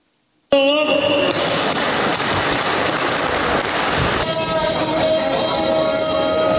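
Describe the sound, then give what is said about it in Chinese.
The bell at Tokyo's Toyosu Market rings loudly and continuously on the morning of the 5th, signalling the start of the first fish auction of the New Year, starting abruptly and clanging for several seconds in a dense, bright metallic wash with sustained high ringing tones, no speech over it. “五号一早，东京丰洲市场响起熟悉铃声，开始新年首次鯡鱼竞标。”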